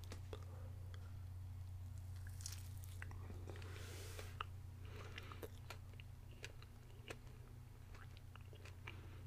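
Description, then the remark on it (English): Soft chewing of a cinnamon-scented Cinnamon Toast Crunch Stuffed Puffs Big Bites filled marshmallow, with an initial bite followed by steady moist squishes and small sticky clicks over a constant low hum, no talking. “So, Cinnamon Toast Crunch st Stuffed Puffs, Big Bites Filled Marshmallows. Let's go ahead and give it a try.”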